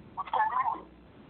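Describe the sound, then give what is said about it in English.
A brief warbling squeal of audio feedback through a tinny phone loudspeaker, rising suddenly and fading after about half a second, with no one talking. “How come we are only a few of us and already we are having feedback?”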